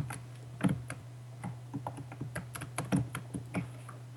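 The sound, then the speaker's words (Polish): Rapid, irregular key clicks from typing on a ThinkPad laptop keyboard, picked up by the laptop's built-in microphone, moderately loud over a steady low electrical hum, with no talking. “skoro tak zachwalasz tę klawiaturę, to mm, skonfrontujmy głośność jej pracy z wbudowanym mikrofonem y, w mm, no tak, ThinkPada.”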